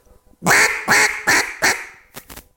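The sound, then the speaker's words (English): A mallard duck call is blown, giving four loud, raspy quacks in a steady descending sequence, then two quick, softer chuckles at the end. “he sounded like a mallard duck on the duck call”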